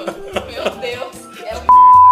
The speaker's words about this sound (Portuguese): Mas eu vou bipar, fica tranquilo. Aqui a gente não corta nada, a gente só bipa que dá processo.